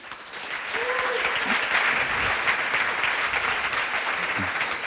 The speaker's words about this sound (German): Und um über dieses äh, aktuelle und brisante Thema zu sprechen, habe ich zwei ausgewiesene Expertinnen heute zu Gast und ähm, bitte auch um einen Applaus für meine Gäste